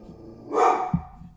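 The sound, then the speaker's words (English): A dog lets out a loud, harmonic bark, followed by a shorter yelp, with a second bark starting as it ends; the dogs are barking at a man delivering a package. “Awful dogs.”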